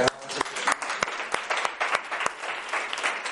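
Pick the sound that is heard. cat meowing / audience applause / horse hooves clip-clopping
audience applause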